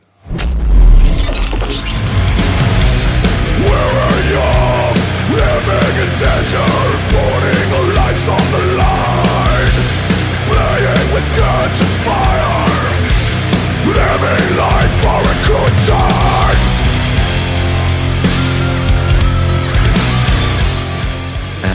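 A loud, densely layered metal song plays continuously, with heavy distorted guitars, driving drums and a sung vocal line riding a danceable, disco-flavored verse groove.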